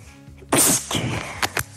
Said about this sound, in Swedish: Prosit.